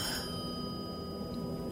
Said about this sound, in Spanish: Esa noche, el teléfono volvió a sonar.